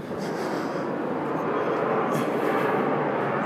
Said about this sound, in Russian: Поэтому я звучу очень странно, как казалось, наполовину себя не слышу, и не только из-за шума улиц.